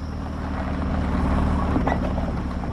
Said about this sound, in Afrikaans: Wag. Kyk gou daardie. Die stof, dit lyk soos 'n bakkie.